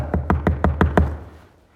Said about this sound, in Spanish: y voy a entrar a mi casa y de pronto voy a escuchar que alguien va a tocar mi puerta.